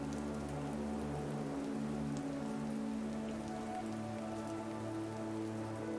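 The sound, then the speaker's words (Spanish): Steady rain pattering onto a hard surface, used as sounds for a meditation, a dense continuous wash of drops with a low hum underneath, even and unbroken throughout with no voices. “Hoy realizamos una meditación con los sonidos de la lluvia, buscando calmarnos y renovarnos a través de sus gotas.”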